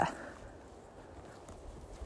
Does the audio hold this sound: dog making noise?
yes